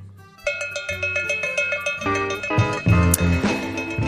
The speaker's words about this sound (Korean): 네, 우리의 식사는 종소리로 마무리 쳤죠.